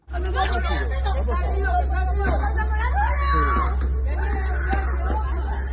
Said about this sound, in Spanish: Un vecino pide una ambulancia mientras una mujer grita desesperada, el tráfico cortado y un hombre tirado en la acera rodeado de un gran charco de sangre. Ocurrió a finales de 2019, a plena luz del día, y en la calle Zabala, en Bilbao,